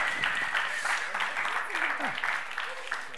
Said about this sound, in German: Ja, gibt sie einen noch größeren Applaus. So, come on, das sind großartige Menschen.